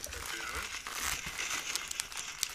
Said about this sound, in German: Ja, weil ich die gerade noch auspacke, die Flasche hier.